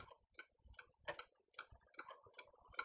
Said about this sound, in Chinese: 偶然之间听到了家里这两只钟表的声音吧，它们的节奏略微有些不同，但就是这种各自有各自的节奏，又彼此很有秩序的感觉